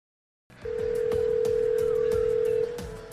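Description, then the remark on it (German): A telephone ringing tone as Google Assistant calls a hairdresser to book an appointment: a single steady, mid-pitched hum holds for about two seconds, with faint regular clicks underneath, then cuts off. No one speaks. “Also dieser Assistant ruft für mich beim Friseur an und macht für mich einen Termin aus.”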